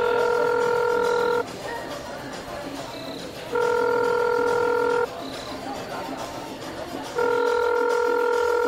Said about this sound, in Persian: با گوشی میسم شماره او را گرفت.